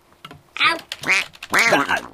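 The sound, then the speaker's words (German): A duck quacks three times in quick succession, loud, each call a harsh nasal burst, the last one drawn out a little longer, as it nips at a person by a computer. “Du lässt dich von einer Ente vom Rechner vertreiben?”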